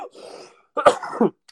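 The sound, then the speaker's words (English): A harsh cough bursts out after a strained, gurgling rasp, followed by throaty choking sputters, like someone catching something down the wrong pipe. “I choke.”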